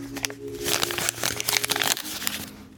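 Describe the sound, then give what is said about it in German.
Paper 50-euro banknotes being crinkled and rustled, a continuous dry crackling with dense bursts through the middle, easing off toward the end, with no voices. “Das waren 50-Euro-Scheine, Papiergeld.”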